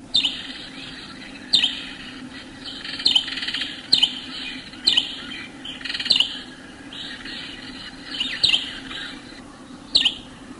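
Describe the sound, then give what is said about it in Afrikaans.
A common Cape sparrow calls with short, bright chirps repeated about once a second in an uneven rhythm, clear above a low, steady background hum. “Nou hier is die roep van ons gewone Kaapse mossie of die gewone mossie.”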